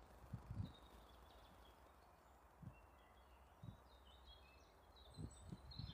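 Faint birds chirping outdoors, scattered high tweets over a soft background hiss, with a few low muffled thumps and bumps.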